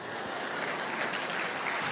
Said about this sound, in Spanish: Y aplauden, eso es maravilloso.